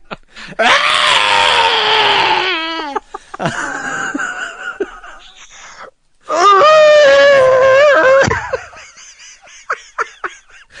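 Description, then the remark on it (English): A creature's shrill, warbling scream, a sound effect, rises and wavers in three long bursts separated by brief pauses, the last one loudest and ending in a trailing, fluttering cry. “I love the, the sort of the scream that they have of of the one. creature.”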